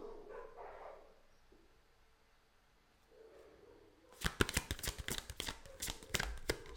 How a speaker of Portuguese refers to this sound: Cachorro confirmando.